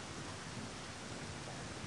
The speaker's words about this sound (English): because you are given house and during this heavy rain like right now in indonesia you don't feel you know you get wet because of downpour